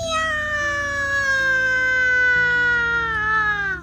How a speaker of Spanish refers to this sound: Caminó otro poquito, otro poquito, y no se dio cuenta que la rama del árbol, crash, crash, comenzaba a romperse, hasta que de pronto se rompió completita y el gatito cayó en medio de la fuente. ¡Miau!